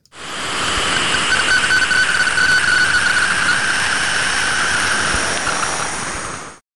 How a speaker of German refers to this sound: Also man hört schon, dass es wesentlich leiser ist, wesentlich äh, feingliedriger, also mehr so ein Rauschen als so ein Prasseln. Und man hört auch dieses Quietschen, was äh, ja verschiedene Strahlungswellen oder geladene Teilchen sind.